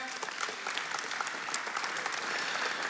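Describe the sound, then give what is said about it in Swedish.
Steady audience applause for a man from the audience who has a sore foot and is asked to come forward, a dense crackle of many hands clapping at an even level throughout, with no voices standing out above it. “Vi ger honom en applåd.”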